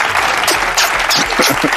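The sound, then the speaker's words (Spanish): Steady, dense crowd applause fills the whole moment, a loud wash of many hands clapping at once with no pauses, the crackle spread bright and even throughout. “¡Alarguen el aplauso!”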